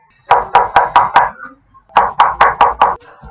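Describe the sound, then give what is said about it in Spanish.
Two bursts of firm knocking on a wooden door, about five quick raps each, separated by a short pause, with no voices. “pero mientras reúne suficientes para hacer un hermoso ramo, el hábil lobo corrió a la casa de la abuela y golpeó hacia su puerta.”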